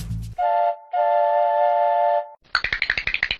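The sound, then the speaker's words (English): A toy train whistle gives a short toot, then a longer steady one, followed by a quick, even chugging rhythm of about a dozen puffs. No one speaks. “The train set off again.”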